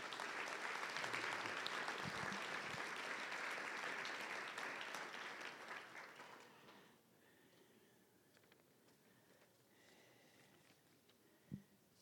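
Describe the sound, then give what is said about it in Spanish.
An audience breaks into sustained applause for God, a dense wash of many hands clapping for about six seconds before it fades out, leaving quiet room tone with a brief thump near the end. “Démosle un aplauso a Dios, hermanos.”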